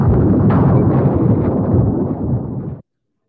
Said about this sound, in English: I think we need some lightning in here. Some lightning.